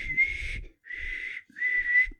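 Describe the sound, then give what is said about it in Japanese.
Three sustained whistled notes, each under a second with short gaps, imitating the hollow howl of wind rushing past buildings that is mixed into the music of a CD book. Moderately loud, with a faint low rumble beneath. “なんか口笛のえっと、こんな、あ、はい。”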